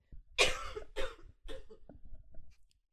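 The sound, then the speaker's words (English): A person coughs several times into an unmuted microphone in a loud burst, with a couple of strong harsh coughs followed by smaller trailing ones, then silence. “You've been being very kind and muting your microphone every time you cough, and I just didn't.”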